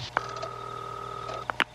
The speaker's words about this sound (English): Then, the computer adds the last four digits, 0001 and calls it.